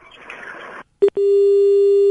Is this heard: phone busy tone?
yes